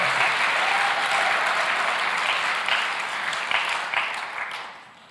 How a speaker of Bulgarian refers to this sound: Ако вярваш в това, дай му едно истинско дарение на ръкопляскане. О, хайде, дай му слава.